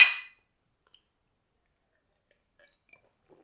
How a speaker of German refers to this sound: Darauf können wir anstoßen.